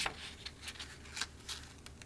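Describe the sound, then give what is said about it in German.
Soft, crisp rustling of paper pages being turned by a person turning the pages themselves, a handful of brief papery swishes spread irregularly over two seconds, fairly quiet, with no talking. “Das kommt davon, wenn man selber umblättern muss und keine Umblätter wie im Konzert hat.”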